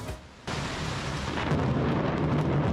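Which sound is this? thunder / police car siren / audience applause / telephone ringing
thunder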